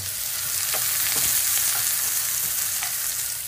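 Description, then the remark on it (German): Meat sizzles steadily in a hot frying pan, a dense crackling hiss with scattered sharper pops, fairly loud with no one speaking. “Und das Fleisch brutzelt derweilen weiter.”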